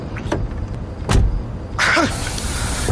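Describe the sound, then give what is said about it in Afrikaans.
Car door locks clunk shut from inside the vehicle as a person locks themselves in the car: a couple of sharp mechanical clicks, then a longer whirring, rattling actuator sound, fairly loud with no talking. “Ek het my in my kar toegesluit en jy sal weer van my hoor.”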